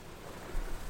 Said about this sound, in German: Du laust dem Rauschen des Meeres